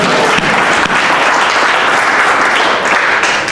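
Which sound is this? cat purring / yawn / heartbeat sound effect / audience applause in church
audience applause in church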